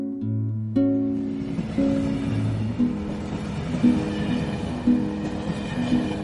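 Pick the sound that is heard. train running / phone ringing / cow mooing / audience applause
train running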